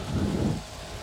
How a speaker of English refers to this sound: I'm going to let this tourism boat go by. Oh, it's called MC Escher.